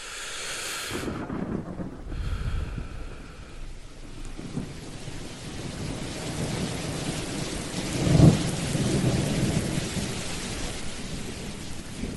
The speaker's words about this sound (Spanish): Un día cayó una tormenta horrible. El cielo se puso muy oscuro.